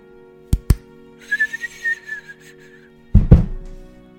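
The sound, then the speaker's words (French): Two sharp pops, then a firework rocket's thin whistle wavering for about a second, followed by a loud burst that rumbles away, as a fireworks display begins. No voices. “Il a suffi d'une étincelle pour entamer le feu d'artifice.”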